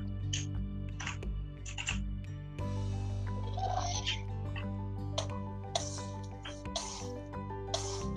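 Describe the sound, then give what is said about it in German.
A video game ghast fires fireballs at a player again and again, short breathy bursts arriving roughly every second over a steady low background hum, moderately loud. “Ich höre die ganze Zeit nur, wie irgendein Gas auf dich schießt.”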